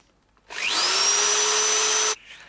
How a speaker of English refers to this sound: I'm awfully sorry. I'll be finished in a moment. The drill has to be repaired before I can start.